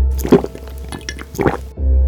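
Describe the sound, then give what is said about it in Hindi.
Two wet sips of water drawn from a water bottle picked up from beside a bed by a man sitting up in bed, a second apart, over a low steady background hum with no talking. “वो अपने बेड पर उठकर डर के बैठ तो चुका था पर वो पसीना पसीना हो रहा था उसने अपने बेड के पास पड़ी हुई वाटर बॉटल उठाई और उसमें से उसने दो घूट पानी पिया”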